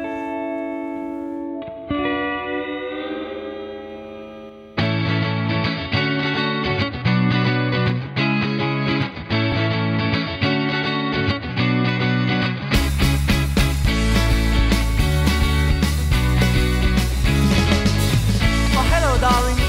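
A rock single by a band from the south-west of France plays on Wave Radio with no talking over it, opening on a sustained guitar tone, then building with distorted guitars and steady drums into a loud, full-band section near the end.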